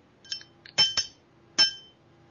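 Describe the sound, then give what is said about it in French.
Several bright glass clinks ring out in an uneven sequence, a couple of lighter taps followed by three sharper, louder chimes with short shimmering tails, and no voices, made as a sound of things knocking together for an aperitif. “Mais je je, voulais juste faire un bruit de truc qui se cognait pour l'apéro, mais ça marche pas.”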